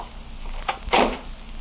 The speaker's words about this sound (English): Oh, dear. I had a presentiment that he'd slam the door.